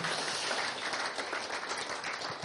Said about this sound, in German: Gebt mal Gott einfach einen Applaus, weil es ist momentan schwierig zu schreien und zu jubeln und jauchzen.